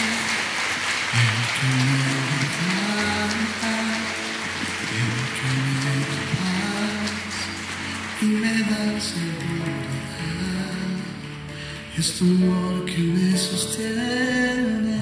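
Sustained, loud applause from an audience giving a strong round of applause to the Lord during a church worship service, a dense crackling wash of clapping that continues steadily for the whole stretch, with sustained musical tones and singing-like notes running beneath it.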